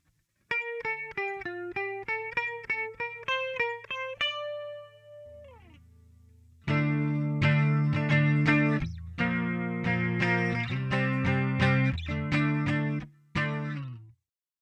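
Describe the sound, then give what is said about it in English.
Electric guitar played through an MXR analog chorus pedal: a clean arpeggiated phrase rings out, a pause, then louder strummed chords with a warm, wavering, swirling tone, played solo. “Once again, this is the MXR analog chorus, and it's the most wallet friendly option on this list that I recommend.”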